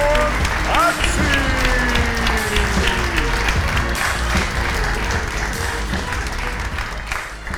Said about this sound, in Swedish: Välkomna till Backa Framåt Live. Här har ni han. Ge en stor applåd